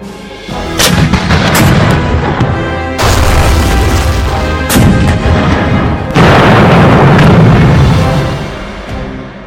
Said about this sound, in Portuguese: forças britânicas tentaram levantar o cerco contra Tobruk numa investida onde os canhões antiaéreos Fleck 88 demonstraram seu poder de fogo quando usados contra tanques e blindados britânicos.